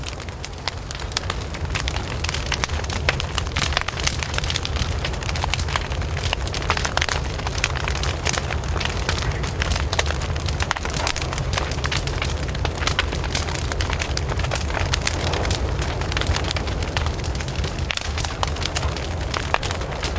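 A campfire crackles steadily for the whole stretch, a dense run of sharp, irregular pops and snaps over a constant hiss, with no voices.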